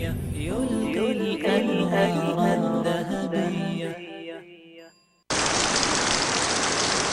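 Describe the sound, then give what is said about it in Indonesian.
A tonal music passage fades out into a brief silence, then a steady, dense hiss of falling rain starts abruptly and continues loudly to the end. “hujan. Itulah yang terpikirkan ketika mendengar kata payung.”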